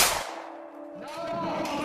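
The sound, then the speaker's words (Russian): A single gunshot, fired inside an apartment, cracks out sharply at the start, then a metallic ringing tone and a noisy echoing tail hang on for a couple of seconds. No one speaks. “Когда э, супруга и ребенок покинули э, квартиру, сразу же прозвучал выстрел.”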